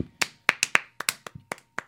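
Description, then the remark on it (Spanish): About nine sharp hand claps in a studio in a loose, uneven rhythm, like one or two people clapping briefly. There's no talking underneath. “Aplaudo con ánimo ya.”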